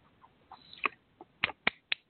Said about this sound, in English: I'm clapping my hands. I can hear you. but I'm, I'm holding a pin, so it didn't work right.